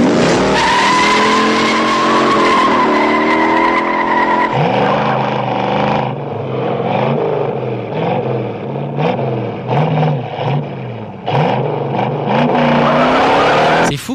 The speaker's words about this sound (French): les bruits de pneus. Ça me donne envie de faire une petite sieste là.